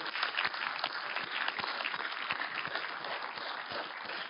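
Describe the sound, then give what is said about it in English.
A Grace Covenant church audience applauds the Lord in thanks. Many hands clap steadily in a dense, continuous wash, with scattered sharper claps standing out, at a fairly even loudness throughout. “Would you join me in just applauding the Lord?”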